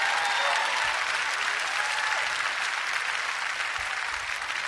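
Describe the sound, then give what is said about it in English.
An audience gives a clap offering to Jesus in a steady, sustained burst of clapping, dense and even throughout, a bright crackling wash of many hands. “Somebody give him a clap offering.”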